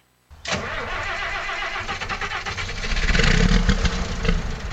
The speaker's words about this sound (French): Non, non, c'est le camion en fait. C'est le camion qui part.